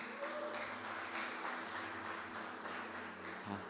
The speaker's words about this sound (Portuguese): É, gente, vamos aplaudir Jesus bem alto aí, irmãos.